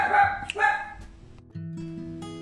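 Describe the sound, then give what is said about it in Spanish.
A small female pet dog barks twice in quick, sharp yaps, followed by a steady low hum in the background. “Por eso justo mi perrita empezó a ladrar,”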